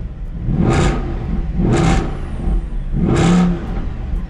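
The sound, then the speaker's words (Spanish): A Mercedes-Benz car engine is started and revs hard three times in a steady rhythm, each loud roaring burst rising in pitch before falling back to a rumbling idle between them. “Creo que lo que más me gusta es el ruido y cómo se maneja. ¿Lo prendemos?”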